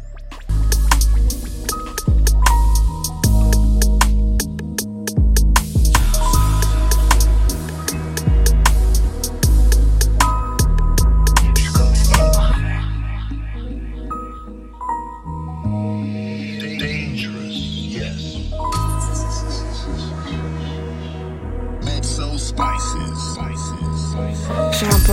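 A loud rap track with booming bass and crisp, steady percussion hits, the beat briefly thinning out midway before the full instrumental drops back in.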